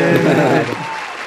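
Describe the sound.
A short burst of clapping for a developer of the Play Kids app, a steady patter lasting just over a second, with a voice calling out over it before the sound fades.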